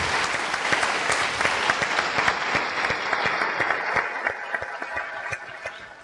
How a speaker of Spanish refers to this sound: Un aplauso a sus compañeros.